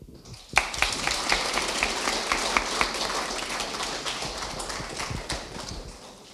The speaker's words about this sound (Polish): Brawa oczywiście zasłużone